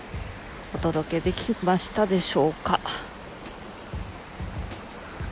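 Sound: river water flowing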